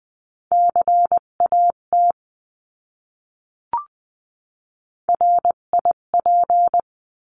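Morse code words sent at 16-20 words per minute as a steady mid-pitched tone, keyed in quick dots and dashes forming two short words, separated by a pause and a brief click. No voices.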